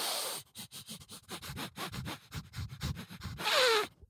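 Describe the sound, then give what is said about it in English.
A voice mimics a dog named Rose aggressively sniffing a person's head: a rapid series of short nasal snuffs in quick rhythm, ending with a longer, louder breathy sniff. “We were noticing um, Rose like like aggressively sniffing his head all the time, sniffing his head constantly like they're hanging out and she'd just be like”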